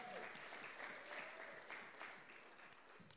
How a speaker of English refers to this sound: Thank you. Give him a hand. Good job.